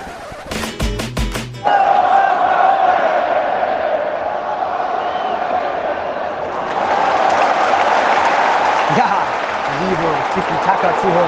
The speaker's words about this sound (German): Was ihr hört, ist das schwedische Publikum. Das geizt diesmal nicht an Stimmung.